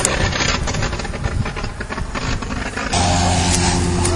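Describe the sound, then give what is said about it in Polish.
A loud, rough aircraft engine runs unevenly, its noisy drone sputtering and faltering for a few seconds before settling into a steadier, humming tone near the end. “Trochę przerywa silnik jakby.”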